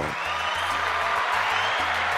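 An audience applauds a member of the board of the Salsa Museum in a dense, steady wash of clapping that lasts the whole moment, with a low pulsing hum of background music running underneath.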